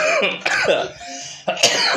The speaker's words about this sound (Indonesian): aduh batuk.